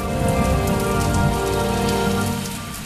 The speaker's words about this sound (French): De sa bouche sortaient du feu, de la grêle, des inondations et des tempêtes. À l'extérieur, c'était une véritable tornade qui emportait tout sur son passage. Dedans, ça secouait comme dans un navire en pleine tempête.